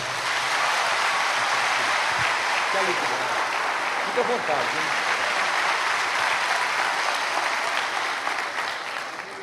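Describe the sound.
Loud, sustained applause from a large audience fills the room, a dense wash of clapping that holds steady for the whole stretch with faint voices mixed underneath.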